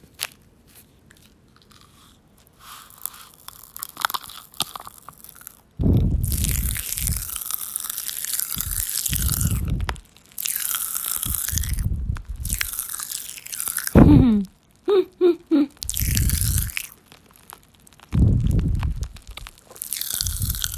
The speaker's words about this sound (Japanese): 別に今日、パチパチキャン、パチパチ、パチパチパチ、パチパチキャンディーを食べるつもりはなかったんですけど、なんか、この、弾け飛ぶ8連勤を終えた気持ちと、パチパチキャンディーがこう、絶妙にシンクロしてですね